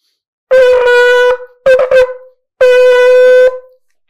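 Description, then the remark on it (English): A shofar sounds a full tekiah–truah–tekiah set as ruled by Rashi: a long steady blast, then a quick series of short wavering pulses, then another long blast, loud with no talking. “According to Rashi, your full set of Tkiya, Trua Tkiya, is going to sound like this.”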